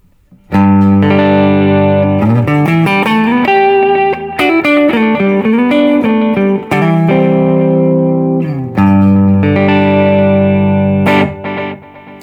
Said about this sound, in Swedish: Ja, och det där är någonting som jag tror … har jobbat med eh, också, att ha ett kort delay som ett slapback. Men som kanske då inte, som det ligger parallellt, som inte går in i det andra för att mm. skapa studsarna,